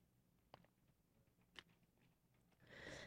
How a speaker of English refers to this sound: Hold on, I got to take a sip of water before I have a coughing fit on air.